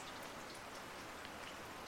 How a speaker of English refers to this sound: I could hear the rain dropping on the tarpaulin above.